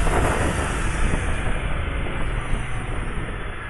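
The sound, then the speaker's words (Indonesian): The engine of a Honda BBR 250cc motorcycle, one of two motorcycles present, runs with a loud, steady, rough roar and a dense low rumble, holding an even level for a few seconds with no voices. “ada dua motor nggak kelihatan mereknya ya Honda deh ya Honda BBR no BBR dua setengah suaranya enak ya kedengeran nggak suaranya kalau kedengeran suaranya enak”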